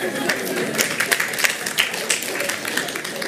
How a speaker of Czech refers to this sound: Hriešník, správně, můžete se zatleskat, bratě.